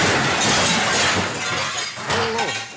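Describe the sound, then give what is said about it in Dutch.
A car crashing into the building of LWS Radio: a loud crash with glass shattering, a dense burst of smashing and crunching that runs for a few seconds, dips briefly, then surges again with more breaking debris. “Er, er rijdt net een, een auto bij ons tegen...”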